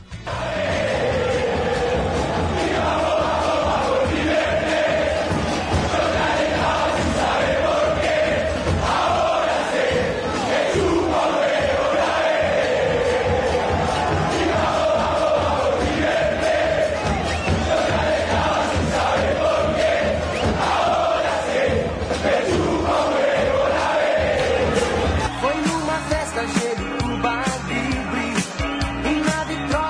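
A large crowd of football supporters sings a song in unison, a loud, continuous chant with a steady melodic rhythm that carries on without pause for the whole stretch.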